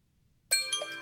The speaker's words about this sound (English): I use the same default uh, timer sound on my phone.